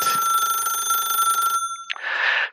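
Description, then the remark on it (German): A telephone rings loudly and steadily for about a second and a half with a bright, trilling bell tone, then cuts off and gives way to brief rustling and handling noise. “Oh, warte, mein Telefon läutet”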